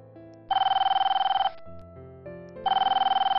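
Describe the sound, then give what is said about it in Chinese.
A phone rings in two bursts, each a rapid, buzzing electronic trill lasting about a second, separated by a short pause, with soft low tones humming underneath, as a woman calls her husband back on her mobile phone after dozens of missed calls. “我拿起手机，看到有数十通的未接来电，是丈夫打来的。我赶紧回拨给他。”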